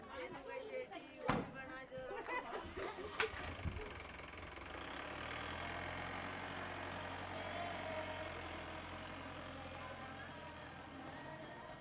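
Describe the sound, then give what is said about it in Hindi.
Several sharp knocks and door clunks as twenty-three women and three men climb into a vehicle until it is full, then a steady low engine idle settles in, with a crowd's indistinct chatter running underneath throughout. “सभी गाड़ी में चढ़ने लगे तेईस महिलाओं और तीन भाइयों से गाड़ी भर गई”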